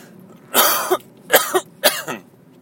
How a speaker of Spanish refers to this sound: Como veis, ni siendo más de las 10 de la mañana os ahorro las toses, perdonadme.